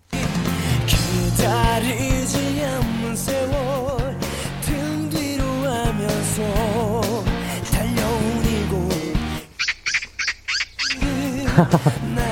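A recorded song, a TV drama theme played for a quiz, plays loudly and steadily, with a sustained, wavering vocal line over full band backing, then breaks into a few short, choppy bursts separated by brief silences near the end.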